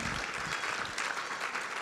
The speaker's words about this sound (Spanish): ¿Cuántos se atreven a darle un aplauso al Rey de Reyes y Señor de Señores?